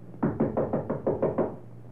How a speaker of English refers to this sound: Nonetheless, after entering the building before knocking on his door, from well at one side of the door frame, I drew my gun.